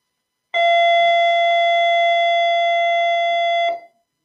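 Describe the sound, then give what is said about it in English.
A loud electric bell rings in one steady, unbroken tone for about three seconds, starting and cutting off abruptly, with nobody speaking over it. “Well, that's the bell.”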